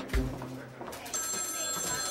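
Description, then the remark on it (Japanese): A telephone rings for Jim McLamore of Burger King, a call made on behalf of a Pillsbury vice president, with a bright, sustained electronic trill, steady, after a brief low thump at the start; no one speaks. “マクラモアが会社の財務課題に頭を悩ませている時電話が鳴った”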